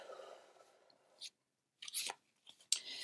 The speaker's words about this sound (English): And as I'm shuffling up these cards, I'm focusing on that our concept of why is it that we don't change? Oh, and I just had one drop out.